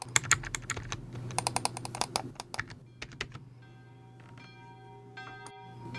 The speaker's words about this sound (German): Dazu setze ich mich jetzt an meinen PC und klicke mal mein geheimes Terminal an. Moment.